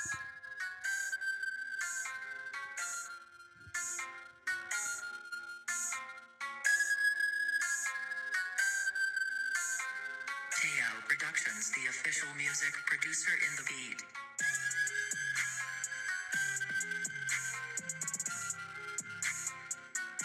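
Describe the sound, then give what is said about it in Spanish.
A homemade, unreleased instrumental beat made in BandLab plays alone: a bright, bell-like synth melody repeats in a steady pattern, then a fuller layer with deeper bass and percussion joins halfway through, keeping the groove going. “voy a poner una base que actualmente no ha salido. Y esa base la hice yo en BandLab eh, hace un tiempo.”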